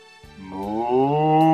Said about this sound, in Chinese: 哞，小牛喜欢妈妈的吻，哞。